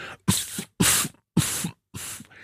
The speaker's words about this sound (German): Und wenn man das vermeiden will, dann muss man zärtlich husten. Zärtlich husten ist ganz einfach, man, man macht eine Faust und hustet so in die Faust hinein